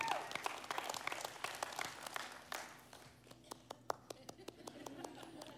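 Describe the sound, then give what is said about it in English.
Light, scattered audience clapping: a brief patter of many hands for about three seconds, then thinning out to sparse, isolated claps. “That's a bottom line reality that deserves more than a birdie clap.”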